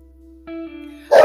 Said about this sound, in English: Sorry, I was listening to the dog.